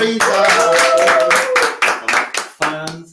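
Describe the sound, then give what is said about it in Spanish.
An audience claps in a steady, fairly even rhythm for about three seconds, loud sharp hand claps with some voices or tones sounding faintly underneath before the clapping tapers off. “También queremos saludar a Laura Falero, mochila, un aplauso”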